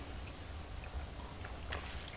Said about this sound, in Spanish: después de este sorbito amargo y siempre, siempre necesario